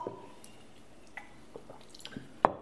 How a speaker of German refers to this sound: Ja, und jetzt trinken Sie mal ein Schlückler Wasser.